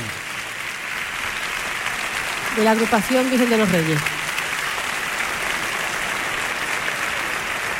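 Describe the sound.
Steady audience applause for the director of the municipal band fills the whole clip, a dense wash of clapping, while a man's voice speaks briefly over it in the middle.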